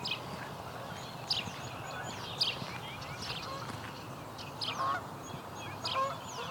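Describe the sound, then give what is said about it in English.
Canada geese honk repeatedly at the Grimsby wetlands, their calls rising over a busy dawn chorus of smaller birds, including house sparrows, chirping and twittering in the background. “Comes a Canada goose.”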